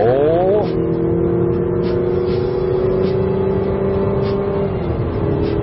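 A simulated engine sound in an NX 200T car during acceleration: a droning, harmonic engine note climbs quickly in pitch, then holds a steady, slightly synthetic-sounding tone for several seconds before dipping near the end. No talking.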